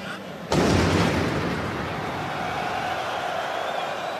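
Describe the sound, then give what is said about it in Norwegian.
The first explosion of the Paris attacks booms suddenly at a football stadium, its deep rumble echoing and slowly fading, with a constant crowd murmur continuing underneath as the match carries on. “jeg så nettopp en vine med det her drønnet på en fotballstadion. Det første drønnet.”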